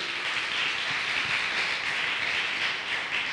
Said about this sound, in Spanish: Yo de usted le doy un fuerte aplauso al Señor. Él me dio el privilegio.